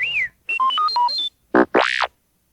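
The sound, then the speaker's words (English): A quick burst of electronic R2D2 robot chirps: a falling whistle, a run of stepped beeps jumping between pitches, then a buzzy warble and a rising-and-falling whistle, clear with no talking. “You will know it is time to change the chemicals when you hear R2D2 beep, like this.”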